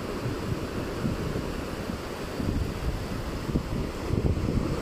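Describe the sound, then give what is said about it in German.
Pacific Ocean surf churning steadily while strong wind buffets the microphone, a continuous broad roar with low rumbling swells rising and falling, no voices present. “Diese ungestüme Kraft des Pazifischen Ozeans, diese unendliche Weite, dieses Zeitgezeitenkraftwerk, es in Worte zu fassen, sprengt meine Kunst der Worte.”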